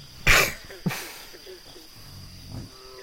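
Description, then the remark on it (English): A dog snoring: two loud, breathy snorts close together near the start, then softer, low grumbling breaths trailing off, with no talking. “I think I hear a dog snoring.”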